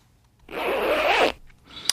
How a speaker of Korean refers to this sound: 아, 이거 지퍼 올리는 소리래요. 지퍼 올리는 소리. 자, 1부에 나가는 노래를 이렇게 듣다 보면 이 지퍼 올리는 소리가 들립니다.